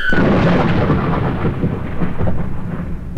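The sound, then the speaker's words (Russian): A deep, sustained rumble of thunder rolls through as a storm begins, loud, with a broad noisy wash like heavy rain underneath and no voices. “Шторм начинается.”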